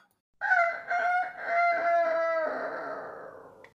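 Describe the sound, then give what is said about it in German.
A rooster, woken from sleep by noise, crows once from a beam, loud, a long harmonic call broken into a few choppy segments before trailing off, with no one speaking. “Der Hahn aber, der vom Lärmen aus dem Schlaf geweckt und munter geworden war, rief vom Balken herab.”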